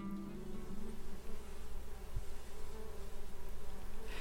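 Bees buzz steadily as they fly around a girl, a dense, continuous drone that swells and dips slightly for several seconds with no voices present.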